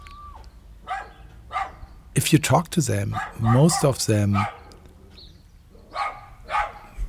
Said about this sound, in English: Chihuahuas uh, that are going crazy like the whole time. That is what we just heard.